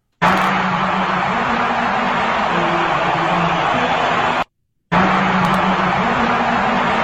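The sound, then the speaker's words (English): A huge stadium crowd at the Alabama versus LSU college football game, recorded on a cell phone as the president is introduced, roars and chants "impeach" loudly and continuously, a dense wash of many voices, cut off by a brief silence before the noise resumes at full volume. “here's a version from the cell phone and somebody in the crowd of when President Trump was introduced”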